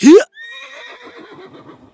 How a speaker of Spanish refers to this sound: ¡Arre, caballo! ¡Debemos salvar a la princesa!